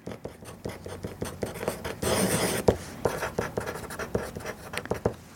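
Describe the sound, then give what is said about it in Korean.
Scratchy writing of a letter with a thick pen on paper, a steady run of short rasping strokes with one longer, louder scrawl in the middle, no voices. “이 정권은 약간 두꺼운 친구로 글을 적어봤거든요.”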